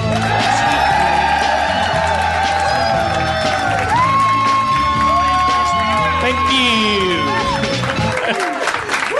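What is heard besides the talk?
audience cheering and applauding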